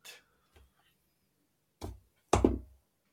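Dice rolled onto a table for an insight check in a tabletop game, landing a natural one: a couple of faint early taps, then two louder, dull clattering thuds close together near the end, with no talking.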